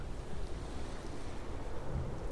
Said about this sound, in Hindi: अंत में उस तूफान ने एक बड़ा भयंकर रूप धारण कर लिया तेज आंधी में वरदान का जहाज एक सूखे पत्ते की तरह समंदर में इधर उधर डोलने लगा